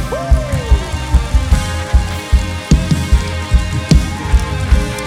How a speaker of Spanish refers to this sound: Vamos ahora sí, denle un aplauso a él.